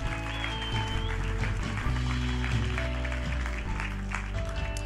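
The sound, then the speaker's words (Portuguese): A church audience claps steadily together, a dense wash of many hands filling the room, with sustained musical tones ringing underneath throughout. “Se uma pessoa bate palmas, toda a gente bate palmas na nossa igreja.”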